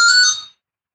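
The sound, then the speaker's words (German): A telephone rings with a bright electronic tone, steady high tones sounding loudly for about half a second, then cutting off into silence. No one speaks. “Hier klingelt wenn das Telefon klingelt, klingelt es überall.”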